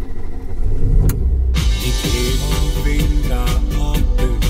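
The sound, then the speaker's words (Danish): A car engine turns over with a low rumble, then catches and settles into a loud, steady running drone with a brighter layer of sound over it. “Og så sætter mig ind, og så er det, at jeg starter bilen”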